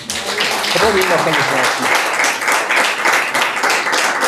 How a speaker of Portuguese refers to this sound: Em nome de Jesus. Dê uma salva de palmas para Jesus, irmão.